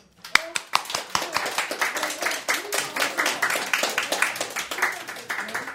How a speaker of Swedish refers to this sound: Men först tycker jag att vi ska ge Håkan en applåd.